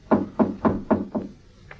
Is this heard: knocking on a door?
yes